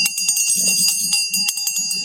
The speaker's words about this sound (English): Okay, we have another first time caller. I've got to get the bell back here.